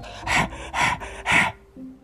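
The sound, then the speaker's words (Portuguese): A voice imitates a wolf panting as it arrives out of breath: three loud, breathy gasps in steady rhythm, like a winded animal, followed by a faint trailing tone. “E em seguida chegou o lobo, esbaforido,”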